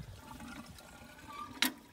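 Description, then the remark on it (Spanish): Water pours and sloshes steadily into a basin to start a flush, a continuous wash of liquid capped by a brief, sharper splash near the end. “Oh, ah, o sea que para arrancarlo se le pone un poco de agua.”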